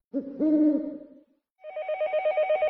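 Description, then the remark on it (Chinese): A telephone rings with an ordinary call reporting to the police, a rapid, warbling electronic trill that repeats steadily for over a second, following a brief pause after a low, hoot-like tone. No one speaks. “事情还要从一个普通的报警电话讲起。”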